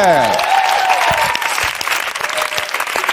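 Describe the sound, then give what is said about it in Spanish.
A crowd breaks into sustained applause for a contestant on a show, a dense, steady wash of clapping that fills the whole clip, with a brief rising musical sting at the start. “Te llevas este aplauso y una pala del programa, luego te la damos, ¿eh?”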